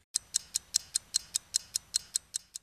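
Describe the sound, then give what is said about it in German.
A pocket watch ticks steadily and quickly, about five crisp, light clicks per second, against near silence with no voices. “Mit der Taschenuhr wurde der Takt der Zeit von Viertelstunden auf Minuten umgestellt.”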